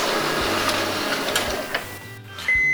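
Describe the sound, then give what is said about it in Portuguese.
A printer runs steadily with a dense mechanical whir and rhythmic clicks, briefly thinning out before a sharp high-pitched whine kicks in near the end. “ah, não, sem impressora parou de novo.”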